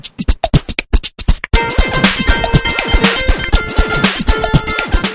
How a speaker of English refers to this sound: But if I want to add the music, I just let go of the spacebar, mic, and I can play it. So just like like this. Here's here's the other bumper that I used to have for the show.